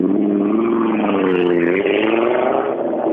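A rally car engine revs hard, its pitch climbing and wavering as it roars past, loud and continuous for about three seconds with no voices.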